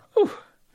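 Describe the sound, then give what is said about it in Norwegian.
A single short sneeze, a sudden loud burst that drops off within a fraction of a second, followed by quiet. “Prosit.”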